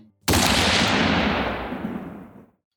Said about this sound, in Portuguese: o tiro sai. E você acerta em cheio na cabeça do abissal.